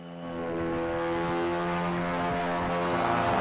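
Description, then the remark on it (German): NASA's Ingenuity mini helicopter lifting off on Mars on its first real flight, the first flight on another planet: its rotors whir in a steady, buzzing drone that swells up within the first half second and then holds loud and even, with no voices. “diesen ungeheuren Lärm hier macht Ingenuity, Mini-Hubschrauber der NASA auf dem Mars.”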